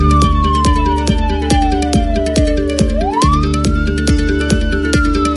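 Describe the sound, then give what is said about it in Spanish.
A police siren wails continuously during a police mobilization at a sports field in colonia Villarrica, Boca del Río, Veracruz, its pitch sliding down and then sweeping back up, loud, over a steady rumble of engine noise and repeated sharp thumps. “Y también hubo una fuerte movilización policíaca en Boca del Río en una cancha deportiva. Escuchemos.”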